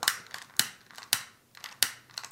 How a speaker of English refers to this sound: i hope that uh, the lighter is not the lighter is out of gas